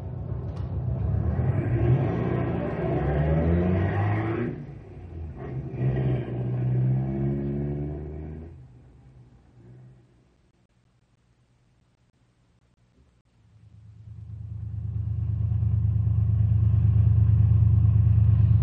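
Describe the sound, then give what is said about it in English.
Car engines on a road rev loudly in two long bursts, their pitch climbing and falling, then drop away to near silence before a steady, heavy engine rumble settles in and continues to the end. “Sounds like they're out to warm up their cars, not burn them up.”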